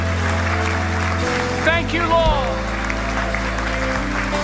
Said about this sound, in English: Come on, let's clap our hands.